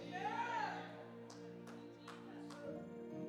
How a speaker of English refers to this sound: I got two hand claps.